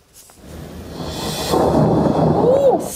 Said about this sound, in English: The deadly storm arrived with a flash and a bang dropping more than three feet of snow through midday today, with more to come.